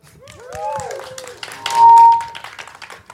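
A crowd at a live concert at La Villette applauds with dense clapping and high whoops and cheers, including a sustained whistle, swelling to a loud peak before tapering off.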